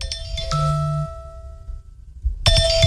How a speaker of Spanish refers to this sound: La alarma. Ah, pero es que el sueño que te lo interrumpan en todos lados.